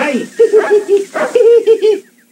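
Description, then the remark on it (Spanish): A white dog lets out a quick string of short, yowling half-barks, its pitched vocalizations rising and falling almost like speech, then trailing off into quiet. “Y este perro hasta que habla, jodido. ¿Mm? Habla. Sí. a duras penas medio ladra.”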